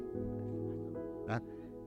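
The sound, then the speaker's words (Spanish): A person imitates a goat's bleat: a sustained, nasal, wavering cry lasting about two seconds, loud, with a brief harsher burst near the end. “Ah, como una cabra.”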